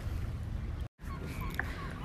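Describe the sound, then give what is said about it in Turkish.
Seagulls cry in short, scattered calls as flocks circle over the sea, against a steady low rumble of wind and water, with a brief dropout of silence partway through before the gull calls pick up again. “E, martıların çıldırmış olduğunu düşündüğümüz bir gün.”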